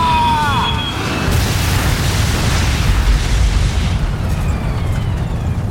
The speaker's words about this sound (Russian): Всего за 57 секунд самолет с эшелона падает на землю. На скорости 1000 километров в час, в перевернутом состоянии, он врезается в гору. Все находившиеся на борту погибают в момент столкновения.